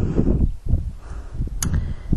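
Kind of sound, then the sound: nature, light wind outdoors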